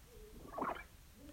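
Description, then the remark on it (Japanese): A single short, odd gulping sound effect, like a pelican swallowing, lasting a fraction of a second. It is fairly quiet over a faint background hum, with no talking. “変な音だねうん飲み込む音らしいのうんペリカンが飲み込む音らしいのもう一回するね”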